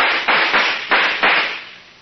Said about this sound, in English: Suddenly, from out of nowhere, police cars appeared. Dozens the cops jumped out. I thought I was saved. But no, they thought I was one of the crooks. And they started firing.